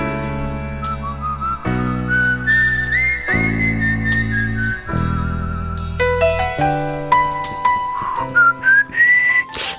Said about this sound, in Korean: 이 휘파람 소리가 참 고독하게 들리죠.